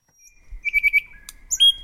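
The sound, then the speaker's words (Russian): A nightingale sings a short phrase: four quick repeated chirps, a sharp click, then bright high whistled notes, with no voices over it. “Часто Соловей вставляет в свои коленцы и фрагменты чужих песен.”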